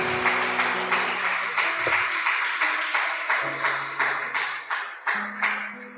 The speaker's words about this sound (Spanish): ¿Cuántos están despiertos? Si usted está despierto, dele un aplauso al Señor.